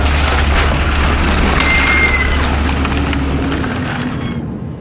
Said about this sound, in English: We must have hit the reef at full speed.